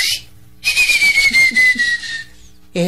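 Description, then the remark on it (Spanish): A single breathy human whistle imitating a bird call, given as a signal, one long steady note that slowly slides downward for about a second and a half, loud, with no talking over it. “Uy, qué chiflido más feo es.”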